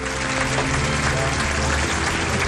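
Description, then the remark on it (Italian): A large audience applauds loudly and continuously as Dustin Hoffman enters, comes down the stairs and shakes hands with the audience; a dense wash of clapping that stays steady throughout, with no pauses or talk rising above it. “In questo momento sta entrando Dustin Hoffman, sta scendendo le scale, eccolo inquadrato, stringe le mani dei, del pubblico, grandi applausi.”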